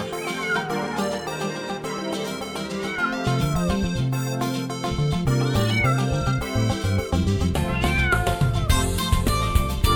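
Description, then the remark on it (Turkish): Cat-like meows, voiced by a singer imitating a cat in a Turkish song about a kitten, ring out repeatedly over a loud, steady backing of bouncy music, blending into the melody rather than standing alone. “Kedicim kedicim gel seveyim seni ben Miyav miyav diyerek yaklaşıver bana sen”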